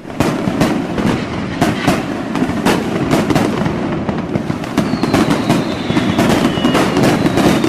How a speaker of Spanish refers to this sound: Ahí está, ahí está, Desde Tultepec vienen a tirar sus cohetes, su dinamita.